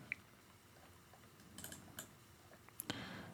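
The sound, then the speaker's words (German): Faint, scattered clicks of typing on a computer keyboard, a few irregular taps spread over a few seconds, with no talking. “Ich kann, ich kann auch leider nicht mit einer Hand tippen, aber bin auf gar keinen Fall bereit, meine andere Hand zu benutzen und den mhm.”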